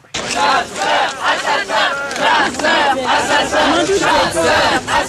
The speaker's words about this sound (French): Manifestation contre la chasse à cour dans l'Oise en 76